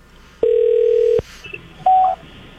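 Two loud electronic telephone dialing tones, one long steady beep followed by a shorter, higher-pitched one after a brief pause, as a phone call is placed on the 95.7 Cruise FM radio show, with no one speaking.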